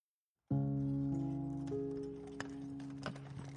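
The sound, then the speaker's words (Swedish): A horse-drawn cart carrying passengers, with a coachman on the driver's box, rolls out of Drangelbäck; its hooves clip-clop in a loose, uneven rhythm, the sharp knocks sounding over a steady, low humming drone that fills the background throughout. “där med en hästskjuts. Han sitter på en kuskbock.”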